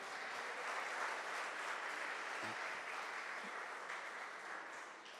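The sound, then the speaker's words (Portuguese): A crowd applauds in praise of the Lord, steadily throughout, a dense wash of clapping hands that holds at an even, fairly loud level and fades slightly toward the end, with no one speaking. “o Senhor tem sido muito bom conosco, e se você também pode dizer isso, aplauda Ele nesse instante.”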